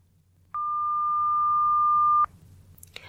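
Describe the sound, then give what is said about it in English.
A single steady, high-pitched hum like a pure tone at 1200 hertz, the merged wingbeat duet of a mate-seeking female and male mosquito, holds unbroken for under two seconds, swelling slightly before cutting off abruptly into near silence. “Doing this, they both ended up at 1200 hertz, producing a duet.”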